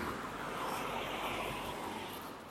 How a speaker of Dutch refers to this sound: Eh, sorry, allemaal auto's. Ik ga nu naar rechts.